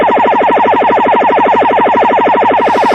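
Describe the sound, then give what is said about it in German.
A loud, steady electronic jamming tone from Iran, used to disrupt shortwave radio broadcasts, pulses rapidly and evenly, a harsh warbling buzz that repeats many times per second without a break, heard alone with no voices. “Arbeitet der Iran auch mit Störsendern? Hörsendern. Das, das ist macht, sogenannte Jammin.”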